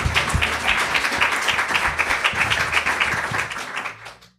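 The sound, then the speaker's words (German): An audience applauds with dense, steady clapping that holds for several seconds before tapering off and fading out at the end, with no talking over it. “Nochmal einen Applaus für dich.”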